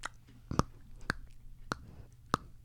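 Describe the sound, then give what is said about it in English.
Four crisp crunches, like someone biting into chips, land at a steady pace about half a second apart over a faint low hum, with no talking. “Pretend you're doing a final crunch.”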